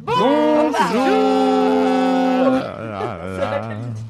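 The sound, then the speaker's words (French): A long, voiced yawn that dips in pitch and then holds a steady tone for about two seconds, followed by a lower, brief spoken goodbye ('au revoir'). “J'ai baillé et j'ai dit au revoir.”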